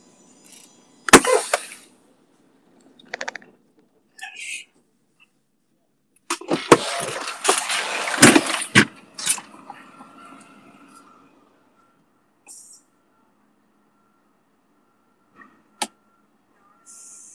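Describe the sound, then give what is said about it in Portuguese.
A truck being closed up: a few sharp metallic bangs, then a burst of rattling and sliding clatter ending in heavy thuds, followed by scattered faint clicks and near silence. “vai ter que dar uma pausa agora que eu tenho que, tenho que fechar o caminhão, rapidão.”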